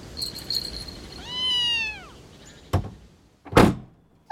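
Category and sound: animal, cat meowing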